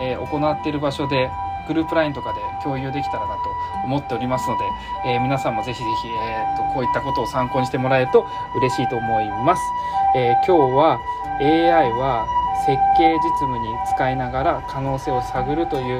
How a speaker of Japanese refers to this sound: ちょっと後ろ救急車うるさかったですねすいません